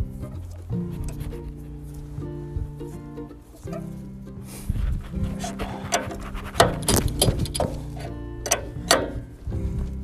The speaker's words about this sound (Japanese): よしとちょっと一回チェーンを締めてでねこれをもう片方やります